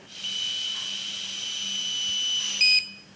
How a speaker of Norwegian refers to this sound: Da skal jeg blåse, og da vil jeg høre en pipelyd.